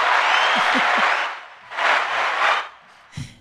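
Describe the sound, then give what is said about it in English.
A burst of crowd cheering and applause swells loudly, dips, then surges again in two more waves before cutting off abruptly at the end. “the crowd goes wild for this.”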